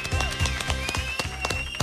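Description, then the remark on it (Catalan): An audience claps along in a steady rhythm, with sharp, loud beats about three per second, and sustained tones and voices ringing underneath. “Un gran aplaudiment.”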